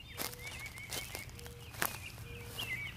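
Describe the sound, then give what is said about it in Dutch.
Several slow, uneven footsteps crunch on forest ground as two people walk through a forest, with faint birds chirping in the quiet background and no talking. “We lopen door een bos en bij elke nieuwe boom vraagt de man aan mij of ik hem goed gelukt vind.”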